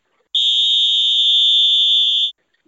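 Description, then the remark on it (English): A single long, steady whistle blast, shrill and high-pitched, holding one constant tone for about two seconds before cutting off cleanly, with no voices around it. “There's the whistle.”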